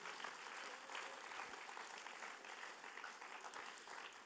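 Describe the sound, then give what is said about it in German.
An audience applauds steadily for several seconds, a dense wash of many overlapping hand claps holding at an even level without pauses and with no voices over it. “Lass uns mal einen grossen Applaus geben, die machen das super, sehr schön.”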